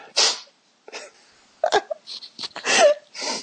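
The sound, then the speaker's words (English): Several sharp, breathy bursts, the sputtering gasps of someone about to sneeze, leading into a forceful sneeze, with brief pauses between them. “Wait, I have to sneeze.”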